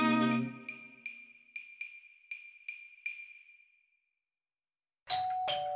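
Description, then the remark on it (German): A doorbell rings out clear for a food delivery from a restaurant, a run of about seven quick bright chimes that ring on and fade, followed after a short silence by another brief, bright electronic tone. “Ah, der Klang, wenn die Leibspeise vom Lieblingsrestaurant ankommt.”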